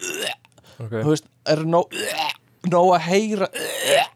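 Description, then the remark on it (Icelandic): A person makes several short, strained gagging and retching noises in quick bursts separated by brief pauses, with a few spoken words mixed in between. “mér langar að prófa hvort að það sama gildi um þú veist það að kúast”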